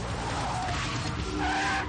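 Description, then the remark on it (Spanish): A car roars steadily while its tires let out brief, high squeals as it swerves in a zigzag into the opposite lane of a road, across a yellow line. The engine noise is loud and continuous for the whole two seconds, with no voices. “Al incorporarse a la carretera, invaden el carril contrario circulando en zigzag a pesar de la línea amarilla que le prohíbe el cambio.”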